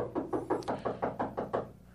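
A quick series of about eight soft, evenly spaced, discreet knocks on a bedroom door in the servants' wing of a mansion, late at night, fairly quiet, with no voices around them.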